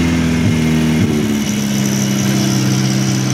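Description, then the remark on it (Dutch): A 60-year-old Volvo P1800 car engine idles with a steady, slightly uneven sputter, its low rumble holding constant and loud throughout, with no voices. “Hij loopt en hij pruttelt een beetje.”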